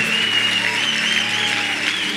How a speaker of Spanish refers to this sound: ¿Cuántos pueden dar un fuerte aplauso a Él? Amén.